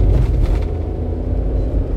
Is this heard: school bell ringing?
no